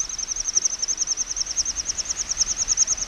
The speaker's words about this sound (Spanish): que es lo que emiten los sisones, unas aves esteparias que cuando despegan y vuelan tienen la pluma de vuelo principal, la más, la más externa, con una escotadura y produce ese sonido que entre ellos los oyen y tienen un significado.